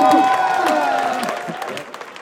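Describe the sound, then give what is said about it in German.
Audience applause for the three prize winners of a 2020 business-idea award, a dense patter of many hands clapping that gradually thins and fades over about two seconds, with a sustained tonal layer running underneath. “Ich bitte um Applaus.”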